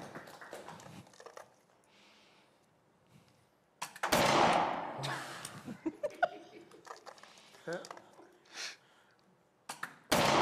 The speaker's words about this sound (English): So you get seven shots, knock as many of those cans down. Yep, that you're standing right there on that line.